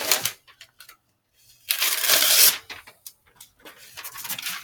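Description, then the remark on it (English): Paper being torn with teeth to mark a page: a few short crinkly rustles, then one longer, louder rasping rip, followed by scattered softer crackles of handled paper. No one speaks. “did I just rip paper with my teeth? Yeah, I did.”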